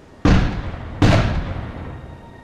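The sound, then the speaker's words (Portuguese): Two heavy cannon blasts boom about three-quarters of a second apart, each a loud, sharp report with a long rumbling tail that echoes away, fired from ships anchored off an island on the order of John White. “Foi quando deu a ordem para que dois tiros de canhão fossem disparados.”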